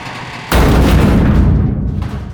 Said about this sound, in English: Once. Twice. Three times more, the thing smashed against the barrier.